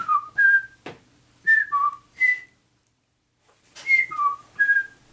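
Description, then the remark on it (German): A person whistles a short bird-like call, a few bright sliding notes repeated in two clear phrases separated by a pause, fairly loud with no talking. “Und das andere ist dann ein Vogel, der irgendwie so ganz äh, so dann, ganz das doch. bestimmt pfeift so.”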